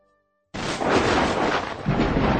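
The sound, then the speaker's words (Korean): A sudden, loud thunderclap bursts out of near silence and keeps rumbling heavily, with a second crack and surge of roaring noise near the end. No voices are heard. “아, 갑자기 웬 천둥이지?”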